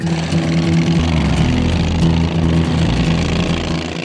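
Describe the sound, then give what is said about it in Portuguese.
Loud dune buggy engines, warmed up, roar steadily with a low droning hum, pitch shifting as they rev, fading slightly at the end as the buggies set off across sand dunes. No voices. “Motores aquecidos, vamos partir.”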